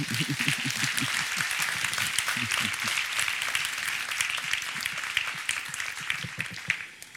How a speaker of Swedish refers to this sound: Jag föreslår att vi hälsar dem välkomna med en applåd.